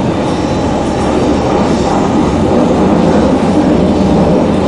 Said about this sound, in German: Wir sind, ähm, wir sind unterwegs Richtung Osten. Ähm, mit der Ringbahn.